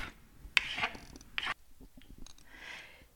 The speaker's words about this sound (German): Und jetzt zum Rezept. Aus allererst schneidet man die vier Toastbrotränder ab.